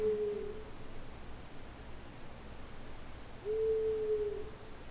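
An owl hooting sound effect: the owl hoots twice, a short low call at the start and a longer steady hoot a few seconds later, over a quiet hiss of nighttime background noise.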